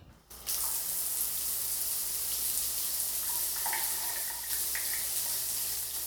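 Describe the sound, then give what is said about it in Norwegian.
Shower water runs in a bathroom in a steady, broad hiss that starts abruptly after a brief pause and continues evenly, with faint splashing tones shifting through it. No one speaks. “Jeg går og tar meg en dusj, sa Hedda og gikk ut på badet.”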